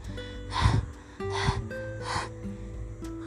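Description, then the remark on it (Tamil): Heavy panting of a deer after running to escape a lion, three loud breathy gasps in a steady rhythm, with a faint sustained tonal background underneath. “ஒளிஞ்சுக்கிறதுக்கு இப்போதான் ஒரு புதர் கிடச்சிச்சு எக்கச்சக்கமாக மூச்சு வாங்குது உயிரை காப்பாற்றுறதுக்காக வேற ஓடிச்சுல்ல ஓட்டமும் ஜாஸ்தி மூச்சு வாங்குறதும் ஜாஸ்தி ரொம்ப நேரத்துக்கு அப்புறமா தான் மூச்சு வாங்குறது கொஞ்சம் குறைய ஆரம்பிச்சிச்சு”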